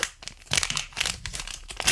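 Crinkly foil of a trading card pack being torn open, a run of sharp, bright crackling bursts with brief pauses between them, fairly loud and with no talking.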